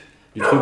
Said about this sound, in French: Il y a un chien qui est complètement énervé, c'est le chien de Simon.